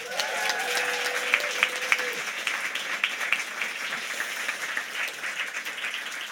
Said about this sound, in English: Give her a round of applause.